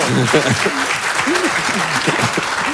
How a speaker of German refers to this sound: Ich bin ich bin über den Applaus tatsächlich überrascht, weil ich fand es billig gerade.